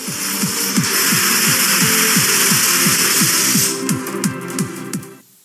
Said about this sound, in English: I figured as much as I want to watch three and a half minutes of dominoes falling, maybe you don't. So I chopped it down to about a minute, and here it is.